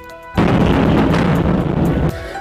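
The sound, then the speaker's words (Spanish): A missile explosion in Kharkiv, where a missile destroyed a government building, erupts suddenly after a quiet moment, a loud blast that roars and rumbles for nearly two seconds before dropping away abruptly. “Hoy, el área que rodea la enorme torre de televisión en Kiev fue atacada y las explosiones se escuchan a cada instante, como esta en Kharkiv, donde un misil destruyó un edificio de gobierno.”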